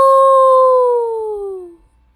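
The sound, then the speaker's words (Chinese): A single long wolf howl at the moon, loud and clear, holding a steady tone before sliding gradually downward in pitch and fading out after about two seconds, with no talking. “这就是为什么狼要对着月亮“啊呜啊呜”的嚎叫。”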